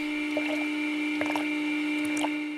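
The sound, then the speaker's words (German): Plant-based milk substitute drips and trickles into bottles in a few short, wet bursts, set against a steady machine hum that runs throughout at moderate volume. “Was hier in Flaschen tropft, sieht Kuhmilch ziemlich ähnlich.”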